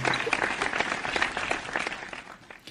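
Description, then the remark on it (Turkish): A short burst of applause from a small group, dense overlapping claps fading slightly toward the end, moderately loud. “süper cevap. Alkışlıyorum seni.”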